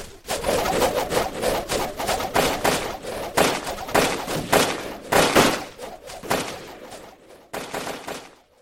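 A rapid, chaotic volley of matchlock musket fire from Japanese troops shooting from behind rice sacks piled like a wall at a storehouse, dodging Joseon arrows: dozens of sharp cracks and booms overlapping in irregular bursts, loud, with a brief lull before a final cluster of shots.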